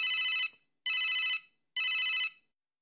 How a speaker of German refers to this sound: Dein Mobiltelefon klingelt. Es ist Frau Sparbrot. Aha, du kennst also auch am Klingeln deines Handys, wenn Frau Sparbrot anruft.